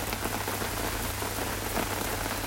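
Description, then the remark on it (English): Steady rain falling outside, pattering on a surface: a dense continuous hiss with fine scattered drops throughout, fairly loud, with a low constant hum underneath and no voices. “Alrighty, so it's raining. I love the rain.”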